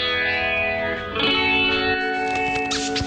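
A reggaeton song intro played on the radio, opening with loud, steady sustained synth chords drenched in echo and chorus effects, a brief swell near the middle, and no vocals yet.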